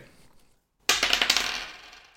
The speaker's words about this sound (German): Nee, mach mal, würfel mal, würfel mal mit einem.